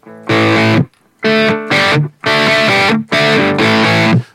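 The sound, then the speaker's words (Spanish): Heavily overdriven electric guitar played through an overdrive pedal into an amp, four loud, dense chord stabs in a rough rhythm with short silent gaps between them; thick, buzzing, saturated tone with no voices. “el, nivel de saturación es, brutal. Y ya cuando le enchufas el amplificador es Madre mía.”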